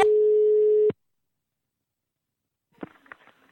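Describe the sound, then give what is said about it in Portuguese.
A steady electronic telephone tone holds for almost a second and cuts off abruptly, followed by silence and then a few faint clicks and rustles, like a handset being handled. “Não tem que ligar o telefone.”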